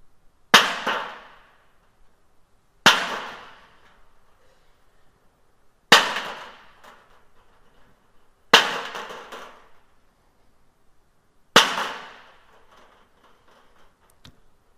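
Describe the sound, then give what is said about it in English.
Rocks drop onto hard ground one after another, five sharp, loud impacts spaced a few seconds apart, each with a short clattering decay, then a faint tap at the end. “But after Jesus said that, they slipped away one by one, starting with the oldest to the youngest, dropping their rocks, leaving them behind.”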